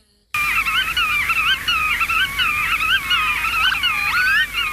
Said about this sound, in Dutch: Dat zijn de grutto's, die zijn ook weer terug.